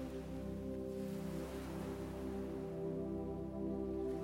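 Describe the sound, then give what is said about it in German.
Gentle ocean waves wash in a soft, continuous rush, steady and unhurried, layered over a sustained low droning tone that hums beneath the surf throughout. “Und du sitzt dort schon eine ganze Weile und hörst einfach nur den Wellen des Meeres zu.”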